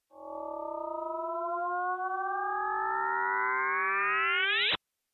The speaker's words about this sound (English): what I love about that sound is, well, first of all, it's such a like a whimsical, almost absurd sound for such an incredible uh, cosmic event, right? I mean, you have two black holes colliding, and it makes this whoop.